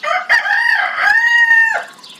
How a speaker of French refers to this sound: Enfin, Cocorico.